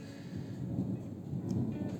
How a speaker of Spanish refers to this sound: Y no sé si escucharon eso, porque bueno, estaba música de fondo, pero eso eh, es porque hay truenos y está lloviendo ahora mismo.